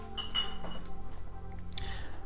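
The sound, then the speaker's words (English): A few bright glass clinks ring out as a glass of Merlot is poured in a home kitchen, with a sharper knock near the end, over a steady low hum and faint kitchen clatter; no one speaks. “poured me a glass of Merlot.”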